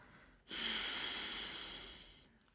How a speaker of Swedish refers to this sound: Vi andas in genom högra näsborren. Täpper för med tummen och andas ut genom vänstra.